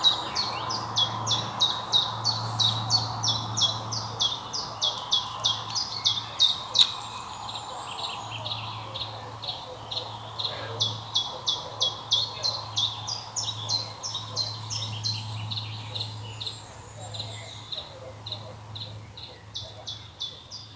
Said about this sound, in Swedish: Det var, den här som sjöng här i förgrunden var en gransångare.